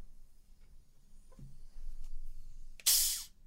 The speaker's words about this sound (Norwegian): Eh, kan du åpne en flaske? Jeg tror den lager en boblelyd.